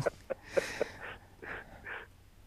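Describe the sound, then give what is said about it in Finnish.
Low, croaking grunts of a Eurasian woodcock's roding call, made as the bird flies close, four short quick notes followed by three softer, hoarser ones, fairly faint with no voices. “Mutta toi pist-ääni on sellainen, joka kuuluu hieman kauempaa, ja sitten kun se lentää lähelle, niin tulee se narina, narina jonka siinä sitten saattaa kuulla.”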